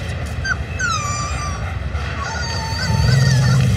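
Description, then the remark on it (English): A protective mother wolf with her young: high, wavering whines and short howl-like cries over a rough background, then a low, steady growl rumbles in near the end. “He's a wolf. And that is its incredibly protective mother.”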